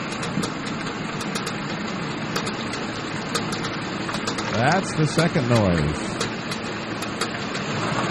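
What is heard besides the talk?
clicking noise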